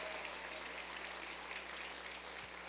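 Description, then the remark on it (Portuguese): An audience applauds once more at the speaker's request in a steady, dense wash of clapping that holds at an even level for the whole stretch, with no voices standing out above it. “Você pode aplaudir mais uma vez?”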